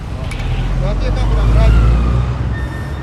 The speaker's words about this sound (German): Wenige Meter entfernt tobt das übliche Verkehrschaos in Kenias Hauptstadt. Busse und Autos schieben sich dicht aneinander vorbei. Die Luft ist geschwängert von Abgasen.